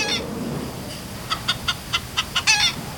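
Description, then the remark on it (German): A chicken's food call played at the push of a button at an interactive exhibit station of the Naturmuseum Thurgau: a quick series of about seven short, sharp clucks in an uneven rhythm, clear over a low background hum, ending in a slightly longer cluck. “An dieser interaktiven Station kann man per Knopfdruck zum Beispiel auch einen Futterruf ablassen.”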